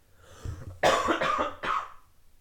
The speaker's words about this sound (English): And oh my god, bad cough.